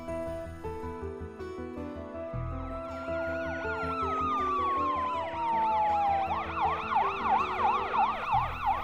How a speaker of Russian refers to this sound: Героиня проснулась от звука полицейской сирены. Из окна она увидела перед домом полицейскую машину и скорую помощь.